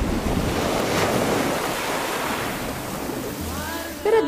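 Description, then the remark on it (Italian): Sea waves break and wash onto the shore at Diamante on the Tyrrhenian coast of Calabria, Italy, in a steady roar, with swelling surges and some wind rumble on the microphone, plus faint chirping near the end. “I greci dicevano che guardare il mare rende belli. Pensate che su questo mare è passato Ulisse.”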